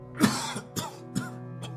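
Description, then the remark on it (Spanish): An elderly, sick man in the neighbouring building coughs repeatedly in a persistent, rasping series of about four harsh coughs spaced roughly half a second apart, moderately loud, with no speech. “Era una tos persistente de una persona mayor como de un anciano enfermo.”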